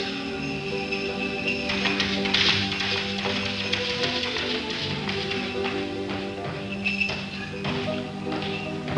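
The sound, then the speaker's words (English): Footsteps thump across a roof in a run of muffled, irregular taps, heard from below, over a steady droning musical background. Nobody speaks. “there's somebody up on the roof.”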